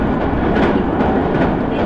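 The Sonic No. 6 limited express train on the Nippō Main Line, travelling from Yanagigaura to Kokura, runs steadily along the rails: a dense, continuous rumble with faint rhythmic clatter and broad hiss, loud and unbroken, with no voices.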